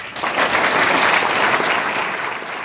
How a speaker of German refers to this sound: Unter tosendem Beifall betritt Lisa Eckert die Bühne